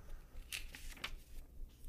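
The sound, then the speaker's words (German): Soft paper rustling in a few quick, crinkly bursts, fairly quiet, with no talking. “ich höre sogar richtig Papier bei dir rascheln, wie oldschool.”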